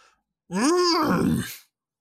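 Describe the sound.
A man's voice does an 'Otto the Bull' noise, imitating a bull's growl: one loud, rising then falling vocal groan lasting just over a second, alone, ending in a rough, gritty rasp.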